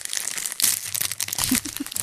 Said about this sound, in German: Oh, es raschelt. Ich höre da was. Und das, das Rascheln ist äh, gewissermaßen der Soundtrack für Folge 1.